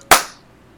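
single hand clap

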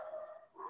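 dog barking

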